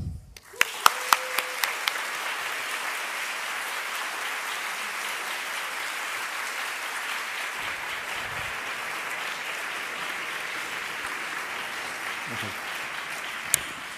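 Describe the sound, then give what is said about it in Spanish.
A crowd applauds steadily for about fourteen seconds to welcome a priest, a dense, even wash of many hands clapping with a few sharper claps near the start, at moderate volume. “But anyway, eh, por favor, ayúdenme a darle una buena bienvenida”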